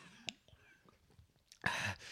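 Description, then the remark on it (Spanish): A single sharp, loud sneeze bursts out near the end, following a stretch of quiet breathing and faint mouth noises. “Salud, gente. salud.”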